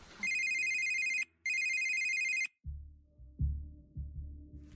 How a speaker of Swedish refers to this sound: Plötsligt ekar en ringsignal genom klassrummet. Det ringer och folk börjar fnissa och skratta och sådär för att de vet ju, shit's about to go down. Elevernas blickar skannar febrilt efter signalens ursprung.